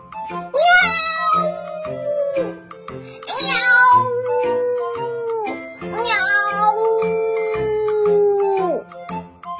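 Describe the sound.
A big fat cat meows loudly three times in a row, each call long and drawn-out, swelling and then sliding down in pitch at the end, with no talking.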